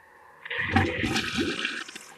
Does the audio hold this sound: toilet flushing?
yes